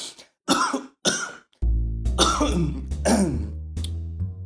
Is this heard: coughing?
yes